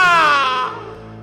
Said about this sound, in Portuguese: Tem gente chorando aqui, é isso mesmo.